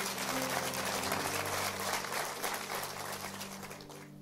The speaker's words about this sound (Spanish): Le damos un aplauso a nuestros amigos allí.